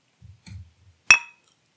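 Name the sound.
glasses clinking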